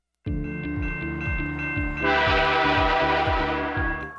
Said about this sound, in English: You need to see and hear the train coming.